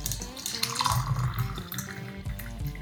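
Taiwanese milk oolong tea is poured steadily into a cup for a few seconds, a continuous splashing trickle whose ringing tone shifts as the vessel fills, with no talking over it.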